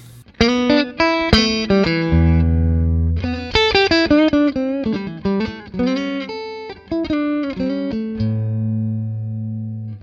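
An electric guitar played through a short cable of about four feet, bypassing the other gear: bright, ringing chords and single notes with sustained low bass tones, strummed and picked in a steady phrase, loud and alone with no talking.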